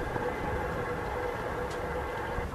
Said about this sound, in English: And I'm sure you can hear the prop shaft. So the, the sound the skipper likes to hear means that the boat's moving well.